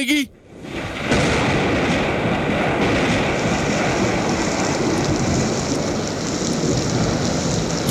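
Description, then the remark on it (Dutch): Steady, heavy rain pours down with rumbling thunder rolling underneath as the intro of a song, a dense continuous hiss that swells in after a brief opening sound and stays loud throughout. “Die vraagt eh, iets eh, ja, met regen.”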